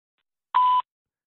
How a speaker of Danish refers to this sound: Velkommen til voicemail. Indtal din besked efter tonen.